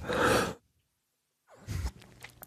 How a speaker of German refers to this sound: Ah, äh, Räuspern.